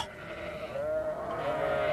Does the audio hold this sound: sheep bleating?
yes